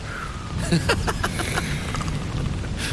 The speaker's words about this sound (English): And we had the rain.